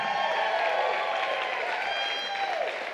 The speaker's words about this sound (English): Before we dive in, um, wasn't worship incredible this morning? Would you guys give our team a round of applause?